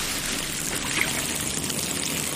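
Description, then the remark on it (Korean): Water pours steadily from a tap while peaches are being washed, a continuous splashing rush that holds an even level throughout, with no voices. “들어가서 기다려. 후딱 씻어줄게.”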